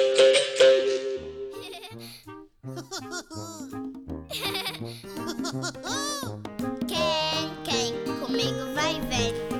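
Bright, bouncy theme music from the Brazilian children's animated series Meu Amigãozão, with chiming jingly tones and playful sung vocals whose wavering notes almost bleat, playing steadily and fairly loud throughout.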